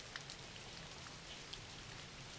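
Steady rain falls with a dense, continuous patter and scattered brighter drips, fairly quiet and even throughout, with no voices.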